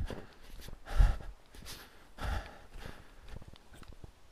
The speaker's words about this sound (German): Okay, es geht wieder berg, bergab. Ihr hört vielleicht meine schnelleren Schritte oder auch nicht. Aber es liegt ein bisschen daran, dass ich vorankommen will und auch ein bisschen daran, dass es eben ziemlich bergab geht.